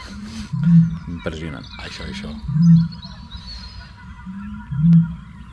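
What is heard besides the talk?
eurasian bittern booming call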